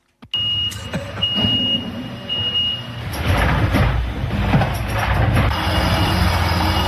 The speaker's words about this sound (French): Imaginez un camion poubelle silencieux. Qui ne réveillerait pas les enfants à 23h par exemple en faisant ça